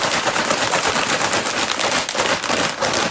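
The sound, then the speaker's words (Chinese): Loud, continuous crunching of potato chips, a dense run of sharp crackly bites with no pauses and no voices, bright and noisy across the whole sound. “我觉得好像应该是洋芋片吧。”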